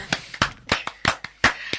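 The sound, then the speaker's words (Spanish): Brief, scattered applause: around nine sharp, bright claps arriving in an uneven rhythm, moderately loud, with no voices over them. “Aplausos.”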